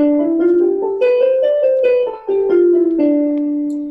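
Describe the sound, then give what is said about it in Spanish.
A musical scale in the Dorian mode played on a sustained, tone-rich instrument, climbing step by step and then descending, each note held evenly at a steady moderate loudness, with nothing else heard. “Por ejemplo, el modo tórico, que suena así.”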